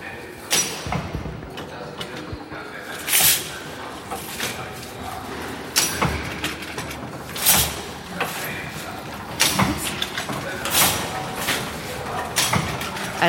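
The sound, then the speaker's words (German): A weaving loom starts running with a steady mechanical clatter, chain sprockets rattling and needles moving up and down, parts thudding in a fairly regular rhythm, moderately loud, with brief sharp knocks every second or two. “die Maschine sieht ein bisschen aus wie eine Druckerpresse und setzt sich jetzt gerade in Bewegung. Und wir hören die Kettenräder und das Hoch- und Runtergehen der, wie nennst du diese Dinge, die hoch und runtergehen?”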